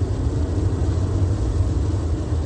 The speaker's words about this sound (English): So even though I'm driving through this rain, I know I will get home.